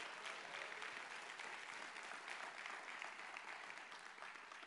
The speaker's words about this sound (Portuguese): Aplauda o Senhor e dá um glória a Deus.